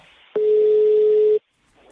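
A single steady electronic telephone call tone sounds for about a second, loud, holding one pitch before cutting off abruptly into near silence.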